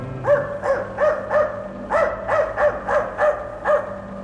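A dog barks over and over in a quick, steady rhythm, about ten sharp barks in a row, fairly loud above a low background hum.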